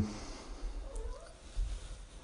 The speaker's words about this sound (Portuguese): estão ouvindo aqui o barulho do meu gatinho.